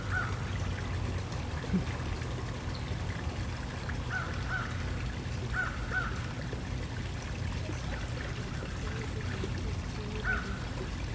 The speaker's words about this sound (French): Puis c'est un endroit aussi où les oiseaux aiment venir comme se, baigner un peu plus haut dans la petite... Euh, comme une petite plan d'eau en haut.